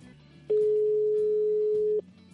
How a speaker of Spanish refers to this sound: Y bueno, vamos a ver si conseguimos que nos cojan el teléfono